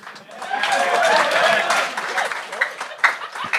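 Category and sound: crowd, audience applause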